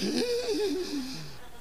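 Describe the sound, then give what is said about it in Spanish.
A voice imitates the breathless, swooning gasp of a woman looking at a handsome man: one airy, wavering vocal sigh, moderately loud, lasting under two seconds and trailing off, with no words spoken. “Les afecta cuando miran a un hombre guapo, se les va la respiración, hermano.”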